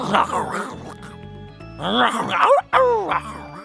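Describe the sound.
A human voice imitates a lion's roar as the lion warms up its voice, with a series of howling, wavering calls that rise and fall in pitch, sounding more like a dog's bark-howl than a real roar.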